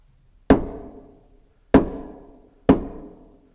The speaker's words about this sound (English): Knock, knock, knock. Who's there?